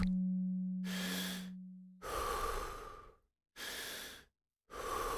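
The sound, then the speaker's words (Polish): Deep, rhythmic breaths drawn in and pushed out during a guided breathing exercise, four broad airy bursts with short pauses between, fairly loud, with a low steady tone humming underneath at the start. “Runda trzecia. Ostatnie 30 oddechów.”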